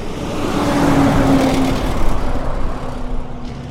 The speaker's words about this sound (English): The thousands of heavy trucks they've brought in destroy local roads. Here's what it sounds like midday on a main street.